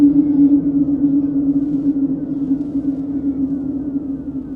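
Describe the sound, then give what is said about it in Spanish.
A low, eerie droning buzz holds steady throughout, loud and continuous with a wavering, siren-like hum and a dark rumbling undertone, no voices present. “Inmediatamente, luego de decir eso, el joven desconocido da un grito fuerte de desesperación y es arrastrado hacia atrás en medio de la oscuridad mientras escucha nuevamente aquel zumbido aterrador.”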